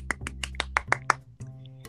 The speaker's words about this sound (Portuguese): E mais uma vez deixo aqui os agradecimentos aos nossos convidados maravilhosos. Palmas para eles.